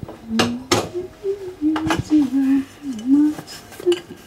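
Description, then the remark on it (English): Dishes and cutlery clink and clatter in sharp, irregular knocks as a woman washes the dishes after a family dinner, humming a slow, wavering tune underneath, the protest anthem Glory to Hong Kong. “washes the dishes”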